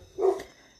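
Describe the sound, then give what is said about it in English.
A single short dog bark, fairly faint, sounding once and then fading, with no one talking. “And again, I apologize about the dogs”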